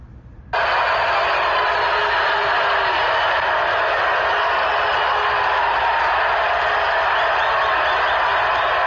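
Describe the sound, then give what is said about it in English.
A huge stadium crowd at Yankee Stadium on May 27 roars loudly, a dense, sustained wall of booing and cheering that kicks in abruptly after a brief quiet moment and stays steady throughout; the crowd boos a banner until security confiscates it, then cheers. “Sounded like the entire crowd was booing until security confiscated the banner, which then resulted in a loud cheer.”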